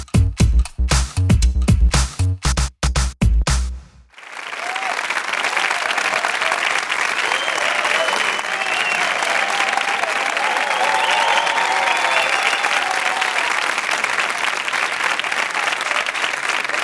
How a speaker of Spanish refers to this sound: Gracias, gracias. Gracias, de verdad que os agradezco el aplauso porque estoy mal, ¿eh?